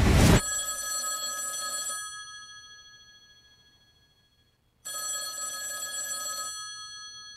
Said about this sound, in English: First, that phone over there is gonna ring.